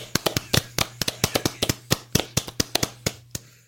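A short burst of hand clapping, roughly two dozen sharp, bright claps in a quick uneven rhythm, as from two people applauding, with a faint steady low hum underneath and no talking.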